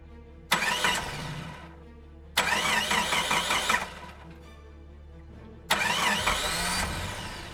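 A car engine cranks in three loud, grinding bursts separated by short pauses, over a low rumbling hum, as it labors to start in the rain and sputters into uneven running. No voices.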